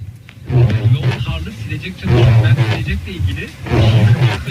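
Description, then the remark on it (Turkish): A windshield wiper groans loudly across glass in three rhythmic sweeps, each a rough, droning scrape of about a second with short pauses between, harsh; despite the noise it wipes cleanly without leaving streaks. “Ama bunca gürültüye rağmen iyi siliyor yani iz bırakmadan ses bırakıyor.”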